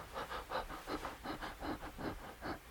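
Rapid, rhythmic out-of-breath panting, about a dozen quick breaths in steady succession, close and fairly soft, with no words spoken.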